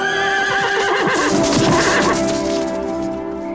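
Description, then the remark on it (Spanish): A horse neighs loudly, a single drawn-out whinny with a shaky, quavering rise and fall that fades slightly toward the end, with no voices over it. “No, yo, pensaba que se preguntaba si es caballo o es yegua.”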